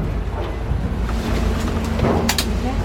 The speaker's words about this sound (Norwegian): Da har vi parkert bilen, og vi eh, har nå i hvert fall fått lov å komme om bord på ferga.